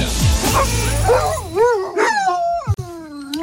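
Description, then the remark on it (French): Mouglis, a Labrador dog without a muzzle on a TGV train, barks and yips in a quick, excited series of high, wavering cries, fairly loud, with a sharp click near the end. “L'histoire du chien Mouglis labrador sans muselière dans un TGV, pris en photo par une ancienne députée socialiste et euh, Madame Anne-Yvonne Ledin qui se plaint qu'il n'ait pas eu sa muselière”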